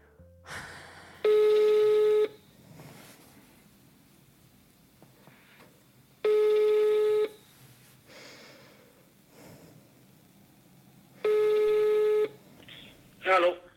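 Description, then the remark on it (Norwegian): A phone ringback tone sounds three times as a caller phones an employer, each steady tone lasting about a second with roughly four seconds of quiet hiss between, ending in a brief click as the line is picked up. “Etter to måneders ventetid ringer jeg opp arbeidsgiver for å høre hva som har skjedd.”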